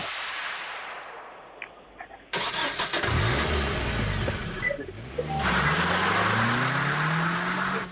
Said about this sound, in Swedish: Och det här är en Nissan, säger man, 240, säger man det? 240 S6 startar och drar iväg.